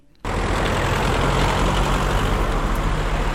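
A steady, loud rumble of idling engines with a deep low hum, from a traffic queue of cars and trucks on the main road through the Mežica Valley (Mežiška dolina) in Koroška, which carries 16,000 vehicles a day and has no detours. Continuous for a few seconds, no voices.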